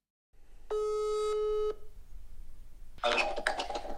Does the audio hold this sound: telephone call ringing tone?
yes